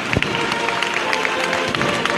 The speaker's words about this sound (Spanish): Ya tenemos fuera pues la cabeza, la primera parte de la cruz del señor gitano. Suena marcha real aunque todavía queda un poco para que termine de salir completo. Pero aquí ya se levantan los aplausos después de esta larga espera.